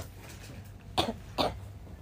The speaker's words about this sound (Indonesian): gak kamu batuk.